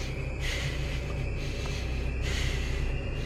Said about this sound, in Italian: Senti dei, un rantolare dietro di qualcosa che ti sta seguendo.